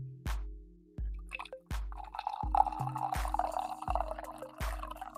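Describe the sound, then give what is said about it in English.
Coffee pours from a fresh pot in a steady, gurgling stream that starts about a second and a half in, punctuated throughout by a series of dull, evenly spaced clunks. No one speaks. “I'll, I'll start the only way I know how to properly start, and that's by pouring some coffee and feeding the ducks.”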